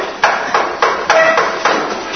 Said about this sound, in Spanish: y te golpea la puerta, no contesta nadie. Claro, no contesta porque el pobre hombre está dormido. Golpea más fuerte, más fuerte hasta que pasa un rato y aparece este con el pijama